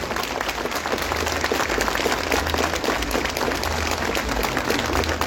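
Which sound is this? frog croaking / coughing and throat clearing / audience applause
audience applause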